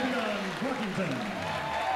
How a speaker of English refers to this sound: Oh, Coach, we got a crowd tonight. We do. They're ready to go. You can hear them.